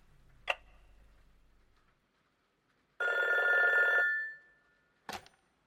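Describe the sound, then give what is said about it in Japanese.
A single ring from a home telephone bell, about a second long and fading out, framed by sharp plastic clicks before it and right after as the handset is picked up on the first ring, for a late-night 11 p.m. call. “電話はワンコールで出る”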